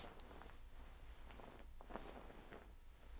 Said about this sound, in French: Vous entendez le frouche-frouche de ma couette?